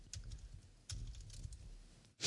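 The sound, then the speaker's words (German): Quiet, irregular clicking of computer keyboard keys over a low background rumble, with no voices, ending in a sudden louder burst of noise. “Reicht doch, wenn einer tippt.”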